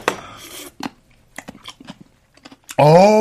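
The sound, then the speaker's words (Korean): Someone eating ramen noodles as a late-night snack, cooked in an aluminium pot and topped with sour kimchi: a breathy slurp opens, followed by scattered soft smacks and small clicks of chewing and utensils, then a loud, drawn-out appreciative voiced hum at the end. “아, 야식으로 라면 먹는 재미를 어떻게 포기해?”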